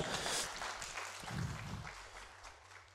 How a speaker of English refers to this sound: let's give our kids a clap